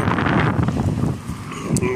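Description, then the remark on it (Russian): Loud, steady wind buffets the microphone, a rumbling roar that fills the whole two seconds with gusty low-end pressure and no clear gaps. “Ой, совсем ветер тут.”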